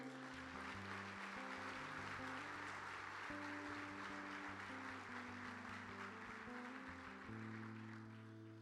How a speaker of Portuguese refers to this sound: Você pode dar uma salva de palmas ao Senhor?